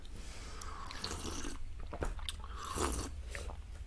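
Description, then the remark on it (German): Loud biting and gnawing on a dried cattle hoof, with sharp crunching cracks and scraping chews repeating irregularly over a few seconds, no talking. “Ich werde mich jetzt psychomagisch selbst therapieren. Mit einer äh, gedörrten Rinderpfote.”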